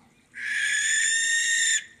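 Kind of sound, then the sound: bird, barn owl screech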